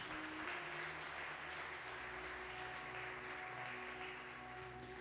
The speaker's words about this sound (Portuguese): Glória a Deus, dá uma salva de palmas ao Senhor Jesus.